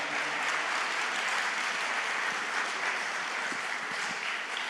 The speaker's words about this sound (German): Vielleicht können wir denen auch nochmal Applaus geben.